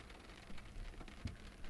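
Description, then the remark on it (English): Steady rain patters on a hard road surface lit by car headlights, falling on a bent yellow bike lying in the road: a constant wash of hiss with a few louder drops and splashes popping out. No voices. “His bent yellow bike was sitting 20 or so feet down the road, at the very edge of the headlights' reach, getting rained on.”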